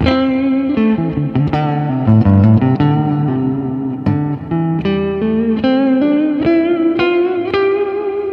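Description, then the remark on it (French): Electric guitar plays a loose, somewhat random run of sustained notes, each wavering with left-hand vibrato, loud with a slightly distorted, effects-heavy tone; no one speaks. “je pense qu'il est vachement intéressant de faire des notes comme ça, un peu random.”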